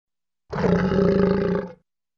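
A young animal lets out one loud, steady roar lasting just over a second, rough and full-throated, with no voices around it and a quick fade at the end.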